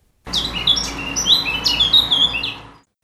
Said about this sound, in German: Und weil der Amselvogel immer noch sein Liedchen sang